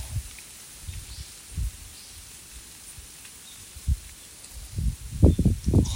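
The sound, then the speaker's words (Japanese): Wind blowing from the direction of the morning sun gusts outdoors through trees with some branches already bare, a dry, papery rustle of leaves, punctuated by low rumbling buffets that grow stronger toward the end; no one speaks. “あーなんか朝日朝日の方向から風が吹いてますね。おならがこうカサカサ鳴ってるの聞こえるんじゃないかな”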